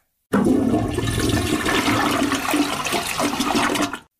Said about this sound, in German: Die Bordtoilette.